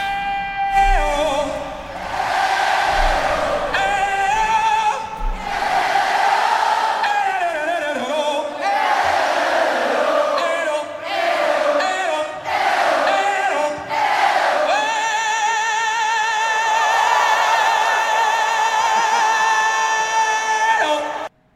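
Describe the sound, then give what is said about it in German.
A crowd shouts and cheers loudly and continuously, voices rising in overlapping bursts, then settling into a sustained, whistling roar of yelling near the end. “Aber generell freuen wir uns und schreien das auch raus.”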